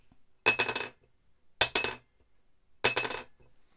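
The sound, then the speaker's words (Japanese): A new, heavier soundpost, a small dense wooden piece, is dropped from about 7 cm onto a wooden workbench three times. Each landing gives a bright clack followed by a few quick bouncing ticks, alone with silence between. “重いはず、重いはずなのに高い音が出る。”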